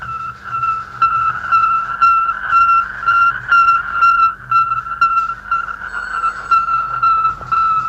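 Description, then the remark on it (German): Automatic position signals from an Earth satellite on a 95-minute elliptical orbit around the Earth: a steady, high-pitched tone pulsing in a regular rapid rhythm at about 0.3-second intervals, fairly loud, over a constant bed of static hiss and low rumble. “Das sind die Positionsangaben, so kann man vielleicht diese Signale nennen, Positionsangaben, automatische Positionsangaben des Erdsatelliten.”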